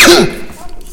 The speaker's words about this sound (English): So here you could use, oh my gosh, I gotta sneeze again.